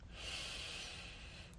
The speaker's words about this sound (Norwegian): Så tar du et mykt pust inn her.